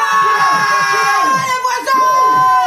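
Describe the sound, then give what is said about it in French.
A loud, dense crowd yelling and cheering all at once, many voices overlapping in a continuous roar like a festival audience, sustained for the whole stretch with a brief dip near the end. “Merci, merci les amis, on vous entend On vous entend d'ici Allez, plus fort, fais du bruit Ouvre les volets, ouvre les fenêtres de chez toi Et gueule Fais participer tes voisins”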